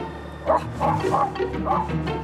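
A dog named Willy barks several times in a quick, uneven series, moderately loud, with a bit of background murmur underneath.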